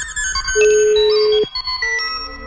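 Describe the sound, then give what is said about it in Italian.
An electronic telephone ringtone plays, a loud run of steady synthetic tones that hold and shift in pitch, sounding alone with no voices. “Si apprestano a comunicare con noi usando lo strumento a noi più familiare. Il telefono.”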